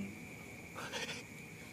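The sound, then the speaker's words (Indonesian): A single short frog croak, a raspy burst lasting under half a second, rises from a steady background hum with a faint high-pitched tone running throughout. No one speaks. “kalian aku tuh ya ngeri kau mesti kodok ya”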